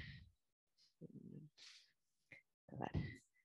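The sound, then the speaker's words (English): A dog named Gibbs plays with his Fable kibble-dispensing toy, which rattles like a maraca in several irregular, short, quiet bursts, with brief gaps of silence between the shakes. “that sound you're hearing that is like a maraca being dropped over and over again is Gibbs playing with his Fable toy.”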